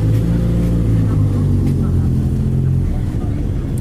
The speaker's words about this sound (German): Vielleicht sollten wir warten, bis die wilden Motorrad-Jungs ja. hier abgedüst sind.